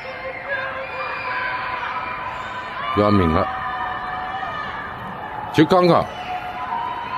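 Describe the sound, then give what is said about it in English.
Many residents yell and wail together from their apartment buildings at night in Shanghai, a steady echoing din of people screaming, with two louder shouts breaking through partway in. “They're just when you you stand out there outside, and you can just hear everyone just screaming uh, from their buildings.”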